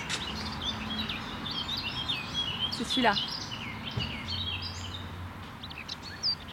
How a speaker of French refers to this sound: c'est quoi ça à votre avis Et on s'est fait avoir. C'était une fauvette à tête noire.